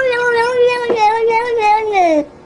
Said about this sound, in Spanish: ¿Qué dijo ahí? ¿Qué dijo ese gato?